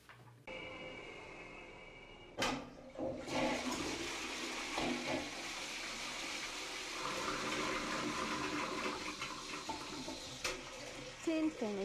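A German toilet flushes: a sharp click of the handle, then a loud, steady rush of churning water that roars on for several seconds, gurgling as the bowl refills.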